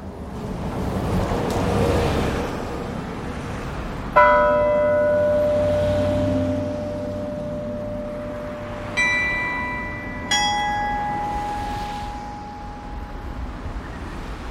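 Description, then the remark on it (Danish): Bells of the 60-metre town hall tower on Frederiksberg Rådhusplads, Frederiksberg, 49 large bells played by a carillonneur, ring out an evening hymn: three separate struck tones with rich, shimmering overtones that hang and slowly fade over a steady background hiss of wind or traffic. “står på Frederiksberg Rådhusplads. Aftensalmen til Nils har lige spillet sine første toner ud over byen.”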